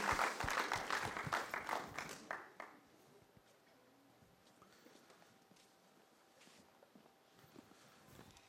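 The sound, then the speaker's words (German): Audience applause bursts loudly for about two seconds of dense, rapid clapping, then quickly thins out to scattered claps and fades into quiet room noise. “einen herzlichen Applaus.”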